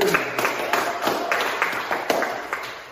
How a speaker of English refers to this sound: Let's clap